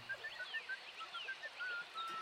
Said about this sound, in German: Leute, da pfeift jemand. Hm? Sicher, dass du kein Vogel singen hörst? Hör mal genau hin und sag du's mir, Professor.